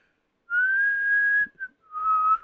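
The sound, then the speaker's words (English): A person whistles the intro melody of a song: a long, clear sustained note, a quick chirp, then a slightly lower held note, with no talking. “I could fully whistle the intro to … because I practiced for years.”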